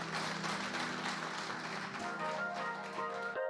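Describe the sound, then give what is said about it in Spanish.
Steady, dense church audience applause runs for a few seconds at an even, fairly loud level, with a faint sustained musical tone beneath it before it cuts off abruptly. “Denle un aplauso, señora, Acompáñeme con un aplauso.”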